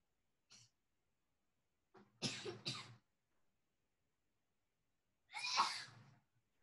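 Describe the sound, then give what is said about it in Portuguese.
A quick pair of sharp sneezes, then a pause and one more loud, forceful sneeze, each preceded by a short breathy intake, with no talking. “Saúde.”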